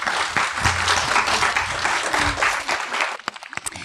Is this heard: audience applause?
yes